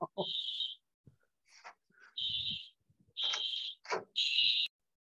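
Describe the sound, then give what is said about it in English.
A fire alarm sounds in repeated loud, shrill electronic beeps, about four bursts in quick succession, with brief muffled voices and thumps in the gaps between them. “A bit of an interruption for fire alarms.”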